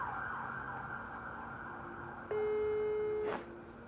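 A telephone ringing tone sounds once as a live phone call is placed to a caller in Mexico City, a steady electronic buzz lasting about a second over a faint background hum, then cuts off with a short click. No one speaks.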